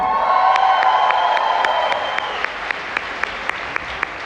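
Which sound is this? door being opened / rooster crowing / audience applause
audience applause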